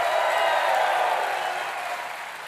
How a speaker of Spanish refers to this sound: ¿Cuántos dicen amén? Dele fuerte ese aplauso al Señor. Y da un grito de victoria.